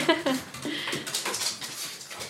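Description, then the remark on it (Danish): A small black pug lets out a few short, high whimpering whines, followed by scuffling and light clattering movement. “Og selvfølgelig skal hunden med.”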